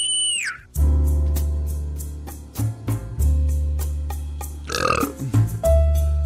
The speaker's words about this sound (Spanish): Ah, ¿Qué pasó? Ensucias la invitación, No, estés eructando, lárgate eructar a la calle, idiota.